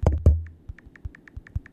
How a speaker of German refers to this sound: die, die jetzt ganz leise hören, es ist äh, das Tipp auf dem, auf dem iPhone, gell? Ja. Wo er so quasi wie eine Tastatur nachmacht.